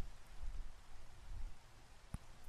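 Steady, soft rainfall hisses evenly throughout, a quiet background wash with faint low rumbling and one brief dull tap near the end. No voices.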